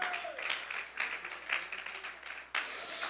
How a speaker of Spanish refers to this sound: Y si ese aplauso es para nuestro Dios, Bríndeselo con el alma en esta hora.